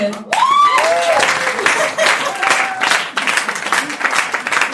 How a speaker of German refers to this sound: Äh, wir applaudieren auch für dich, wenn du gut bist.